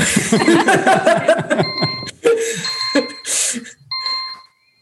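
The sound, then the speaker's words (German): A kitchen timer rings on and off in bright, repeated metallic bursts, signalling that a 15-second time limit has run out, following a stretch of someone laughing, and keeps going until the end. “Ihr hört, meine Uhr läuft ab.”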